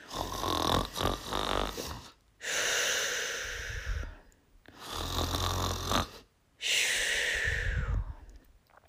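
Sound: voice imitating loud snoring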